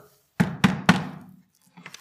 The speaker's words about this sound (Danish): Et hårdt bank på døren, og hun åbnede, og udenfor der stod nogle soldater fra byen